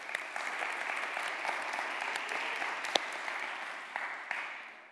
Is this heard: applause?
yes